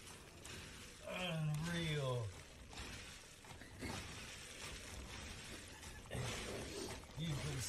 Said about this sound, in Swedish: det här är ljudet från när han liksom med sin hand bara så gröper ut ekollon ur väggen